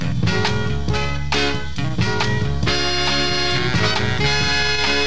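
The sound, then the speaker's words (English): A soul dance record plays loud and continuous, with punchy rhythmic hits driving a full, bright band arrangement; no one talks over it. “And this is one of the records next that struck me as being a good record to learn how to get into this.”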